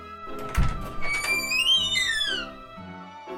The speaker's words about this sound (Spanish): La puerta se abrió y entró.